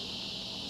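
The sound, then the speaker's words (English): Crickets and grasshoppers chirping in a steady, unbroken high-pitched drone, fairly faint in the background, heard from a garage, with no voices over it. “If y'all hear the grasshoppers and crickets in the background, you're live from my garage.”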